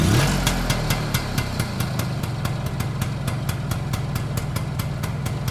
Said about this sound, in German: Das ist ein Motorroller Berlin, er hatte 7,5 PS und damit konnte man mit zwei Personen und Kind drauf und Gepäck auf dem Gepäckträger bis zum geht nicht mehr, Zelt, Kochtöpfe und und und nach Thüringen fahren oder an die Ostsee